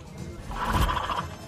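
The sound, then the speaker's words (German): A horse whinnies once, a quavering, tremulous neigh lasting about a second, moderately loud over a low background rumble, as it is let out to the paddock. “Pferd, Pferde dürfen Pferd sein.”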